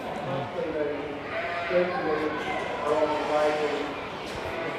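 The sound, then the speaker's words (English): Two plump lambs bleat in a steady, overlapping chorus of wavering cries that fills the whole stretch without pause, with a busy background underneath, at a sheep exhibit. “She is here with her two lambs who are quite plump.”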